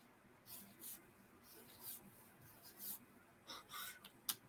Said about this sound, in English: Let me flip my little piece of paper.